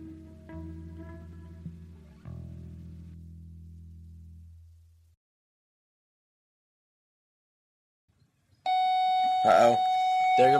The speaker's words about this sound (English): There goes the bell.